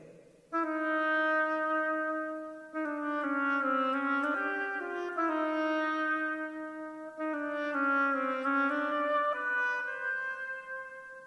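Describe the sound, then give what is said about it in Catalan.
An oboe plays the duck's motif alone: a slow, plaintive melody in a low-middle register, with sustained reedy notes that dip and slide between pitches across three loud phrases. “L'ànec per l'oboer.”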